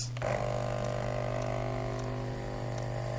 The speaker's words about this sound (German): Das Wasser wird aus dem Wassertank gezogen. So, ein Kaffeepad rein und...